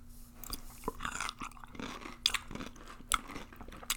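Crunchy chewing of bread and butter, with a run of irregular bites and crackly crunches, some louder snaps standing out, and no talking over it.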